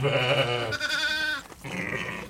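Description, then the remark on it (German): A ewe bleats loudly in a couple of drawn-out, wavering calls with a brief break between them, anxiously calling for her lamb, the cries carrying over faint background farm noise. “ist der Ruf nach, der besorgte Ruf nach, nach einem Lamm.”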